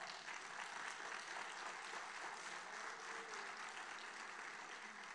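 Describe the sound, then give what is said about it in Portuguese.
An audience applauds the Lord steadily, a dense wash of many hands clapping at an even, sustained level for several seconds, with no voices standing out. “Aplauda ao Senhor.”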